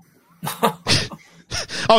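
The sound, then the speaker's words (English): A sharp sneeze bursts out during a quiz, among a few quick breathy outbursts, followed by a brief laugh and a short spoken exclamation. “Bless you.”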